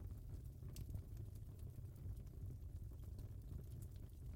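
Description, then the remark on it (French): A quiet fire burns steadily, a soft low rumble broken by sparse, sharp crackles and pops of burning wood scattered through the few seconds, with no voices. “Vous entendez les crépitements du bois qui se consume.”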